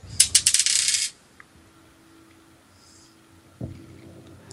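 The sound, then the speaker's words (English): A die, the third of five rolled, clatters and tumbles across a hard tabletop in a quick burst of sharp clicks lasting about a second, bouncing off the table, then quiet, followed by a soft dull thump as it is caught. “Dice three. How come that did twice? bounced off the t- off the table, mm.”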